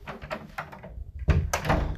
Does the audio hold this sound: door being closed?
yes